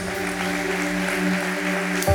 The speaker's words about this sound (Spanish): Le pido un favor. Salga de su asiento, yo le espero aquí al frente. Ayúdenos a que pasen con este aplauso.